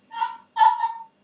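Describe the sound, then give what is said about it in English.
A dog lets out a high, thin whine, one drawn-out cry that breaks briefly in the middle, with no talking over it. “Sorry, that's the dog.”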